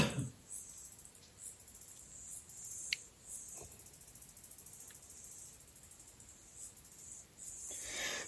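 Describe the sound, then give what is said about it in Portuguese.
A Geiger counter, whose gas-filled tube reacts to radioactive isotopes, gives a few faint, sparse clicks, one per detected particle, at irregular intervals, one slightly sharper than the others, over a quiet background hiss with no one speaking. “Aí se você vê, ele, cada, cada partícula que ele faz, ele dá um clique.”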